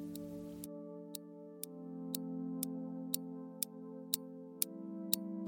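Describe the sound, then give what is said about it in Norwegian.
A clock ticks steadily, about two crisp ticks per second, over a sustained low humming musical drone that fills the background throughout. “Eh, han går nemlig tilbake til klokkene, men denne gangen så stjeler han dem ikke, han reparerer dem.”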